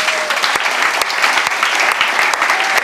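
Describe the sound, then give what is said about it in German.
An audience claps steadily throughout, a dense, even wash of many hands with sharp individual claps popping out, loud and sustained with no voices on top. “Ihr wollt klatschen.”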